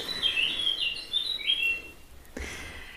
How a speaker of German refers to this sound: Ah, die Vogeluhr. Blaukehlchen.